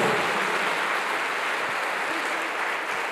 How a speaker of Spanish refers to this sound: ¿Cuántos dicen amén? ¿Cuántos dicen amén? Fuerte ese aplauso al Señor. Fuerte ese aplauso.